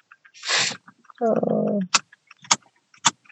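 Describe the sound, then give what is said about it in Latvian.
A car engine cranks briefly with a strained, whining churn and fails to catch on a repeated attempt to start the car, followed by a few sharp clicks. Nothing is spoken. “Mēģināsim vēl iedarbināt. Nē, kas nesanāk.”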